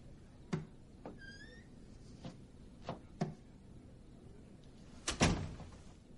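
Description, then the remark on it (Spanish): A man pulls a room's door shut with a solid thump near the end, preceded by a few light knocks and soft creaks, with no talking. “Da la mano a Joan y salen de la habitación. Bullock cierra.”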